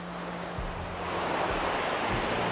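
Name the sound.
rushing waterfall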